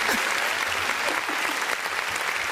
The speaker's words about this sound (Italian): Sempre l'applauso, ma c'è sempre l'applauso nostro. Ah, l'applauso nostro.